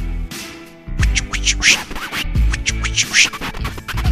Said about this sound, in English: So I have to scratch the record now?